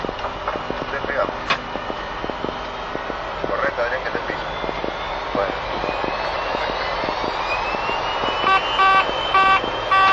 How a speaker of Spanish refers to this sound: viene a ocupar su puesto para el despegue. Despegamos 1-2.